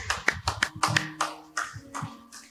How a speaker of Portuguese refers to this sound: um forte aplauso a Jesus. Amém.